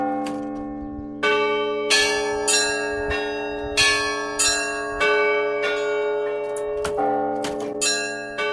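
Church bells in Mlevo rung by hand by a first-time ringer using many levers and ropes leading to the bells, in a steady, slightly uneven peal, about a dozen strikes layered over a deep sustained hum of several bells ringing together, loud with no voices.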